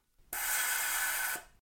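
A single steady rush of air blown through a blocked recorder mouthpiece held in the right position to unblock the recorder, a breathy hiss lasting about a second with no tone or whistle, clear with no talking.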